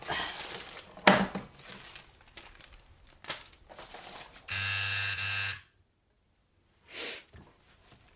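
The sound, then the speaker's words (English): A tattoo gun gives one steady, loud electric buzz lasting about a second, preceded by scattered crinkling and rustling noises and followed by a brief soft hiss. “used to love that sound like the sound of a, of a gun when I first started getting tattooed when I would walk into a studio like even if it was with a friend I heard that sound”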